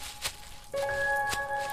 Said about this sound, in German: Alle lauschten in die Stille. Zuerst war alles ruhig. Doch dann hörten wir plötzlich Geraschel und Schritte, die sich schnell näherten.